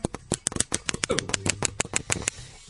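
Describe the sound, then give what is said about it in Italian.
A pen is tapped in a quick drumroll before a category winner is announced: a rapid series of sharp, dry taps, roughly twenty crisp hits over a couple of seconds with a faint low hum beneath. “Il vincitore di questa categoria? Battito di penna.”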